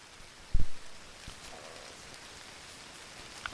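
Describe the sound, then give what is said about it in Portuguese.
Light rain begins to fall, a soft steady hiss of drops with scattered individual patters. A single heavy thump lands early on, then the gentle shower continues alone, no voices. “iniciar chuva”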